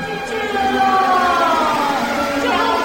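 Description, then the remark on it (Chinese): A vacuum cleaner runs loudly and without pause, its motor giving a high whining hum whose pitch drifts slowly over a few seconds, with a rushing noisy layer underneath. “哎，从哪里冒出来的吸尘器啊？”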